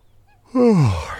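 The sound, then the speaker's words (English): A single loud, drawn-out yawn, voiced and sliding downward in pitch for about half a second after a brief quiet moment, with no talking around it. “Our audience, the rabbit, yawned like this.”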